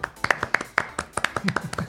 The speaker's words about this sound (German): Deswegen an dieser Stelle ein Applaus